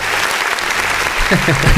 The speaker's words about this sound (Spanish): en ese momento aplausos, aplausos, porque acaba de llegar el catering.